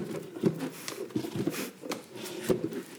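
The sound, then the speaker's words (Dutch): A chair is rocked back and forth on a hard floor, giving irregular wooden knocks and creaks, with a few sharper taps and a low rumbling scrape between them. “En er was een jongen die zat de hele tijd op de stoel.”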